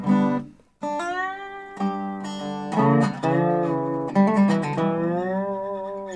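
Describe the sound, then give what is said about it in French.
A square-neck dobro guitar, played horizontally resting on the player's knee and thigh, plays alone, fairly loud: plucked notes ringing out and gliding smoothly between pitches in a slow, sustained phrase. “Moi, celui que je joue, c'est un... On appelle ça en bon français un square neck.”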